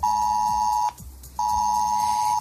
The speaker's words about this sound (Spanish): Efectivamente, para empezar sonará un pitido.